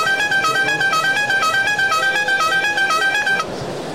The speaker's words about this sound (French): Alors, le coup de klaxon, il est strictement interdit en agglomération, sauf danger immédiat.